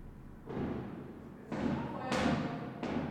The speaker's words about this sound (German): Ist ein Feuerwerk. Also jetzt hört sich wieder mehr an wie Feuerwerk. Okay, Entwarnung, Entwarnung, Feuerwerk. ähm, das gestörteste Feuerwerk, das äh, ich seit langem gehört habe.